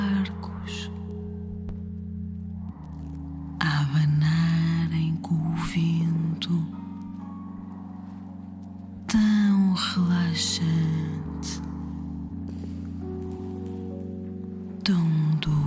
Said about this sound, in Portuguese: Tão bom ouvir o vento em Vanuatu.